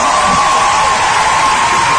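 A loud, dense wash of audience applause and cheering from a standing audience at the end of an emotional speech, steady throughout, with shouts and whoops rising from the crowd over continuous clapping.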